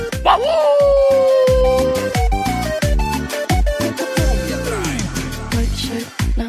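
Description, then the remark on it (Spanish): A dog barks and yips repeatedly in quick, rhythmic bursts, with whining, sliding whimpers between them, loud over a steady, pulsing musical backing, opening the show of el perro Chato Café on Like FM radio. “Llegando y ladrando, hablando y ladrando, siempre ladrando.”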